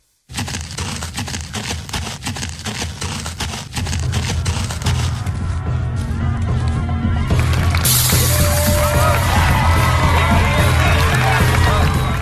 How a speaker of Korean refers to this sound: 이것은 싸우는 소리가 아닐세. 이건 분명 노래하는 소리일세. 네? 노, 노래 소리요? 아, 아니, 무슨 좋은 일이 있다고 노래들을 부르고 있는 것이죠.